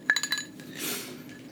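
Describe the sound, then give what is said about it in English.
Ice cubes clink into a glass in a quick run of four or five bright, ringing taps, followed by a soft rushing swirl as they settle. Fairly quiet, with no talking. “Let me give you an ice cube.”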